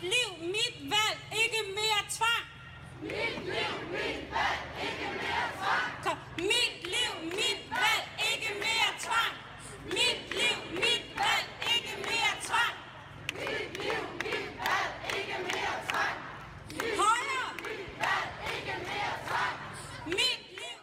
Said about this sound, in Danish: så var det også en, øh, en lov, som førte til ret store protester i offentligheden, og vi skal lige høre et klip med en, øh, en demonstration.